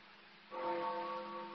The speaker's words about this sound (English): As we sat there at the open window, a nearby church bell was tolling a funeral knell.